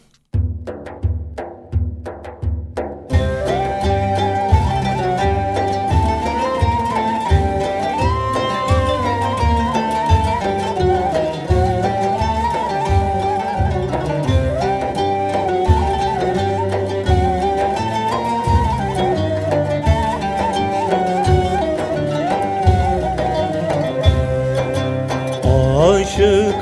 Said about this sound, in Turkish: girmeden bir ilahi daha dinleyelim. Dinleyelim.